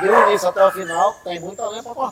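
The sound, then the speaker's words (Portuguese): Dogs yelp and bark in short, high-pitched bursts mixed in with a man's steady talking, their cries overlapping the speech. “convidou né? plateia para vir para cá, que tem uns cachorros gritando.”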